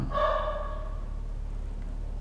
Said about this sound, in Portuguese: Meu cachorro tá latindo, cala a boca, Chico.